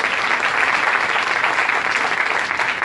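Steady, dense audience applause for the executive leaders of the organization Yo Soy 300, many hands clapping at once, sustained and fairly loud throughout without any voices.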